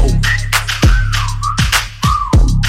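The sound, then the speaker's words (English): A person whistles a wavering, sliding tune over a thumping beat with deep bass and descending swoosh effects, the whistle clear and prominent with no talking. “Damn that ass fat, had to whistle like.”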